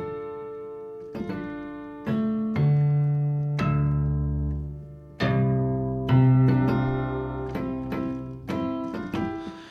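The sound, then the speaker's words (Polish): Sustained synthesized string harmonics, played on a keyboard's harmonic setting with the main tone switched off, ring out in overlapping tones, each new note entering with a soft attack and slowly decaying, layering bright overtones over deeper held pitches without any voices. “to są harmoniczne strun prawdopodobnie niższych w jakiś sposób wywołane.”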